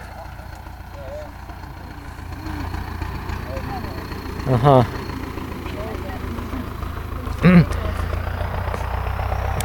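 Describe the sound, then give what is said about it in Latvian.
A tractor engine drones steadily, a low, constant rumble that holds for the whole stretch while a voice briefly speaks over it a couple of times; a tractor driver is at work in the tractor. “Ka tad, kad jūs ejat, tā traktors”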